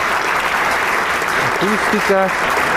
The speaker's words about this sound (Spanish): El público agradece con un aplauso estas sonadas suaves y melódicas. El maestro Iger agradece a la orquesta y a su público, recibe el aplauso, sale por la mampara